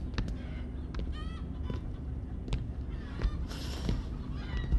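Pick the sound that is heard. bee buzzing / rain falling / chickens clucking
chickens clucking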